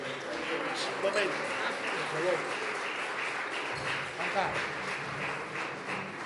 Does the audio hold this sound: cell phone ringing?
no